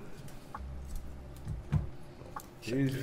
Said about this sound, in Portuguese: Tesoura.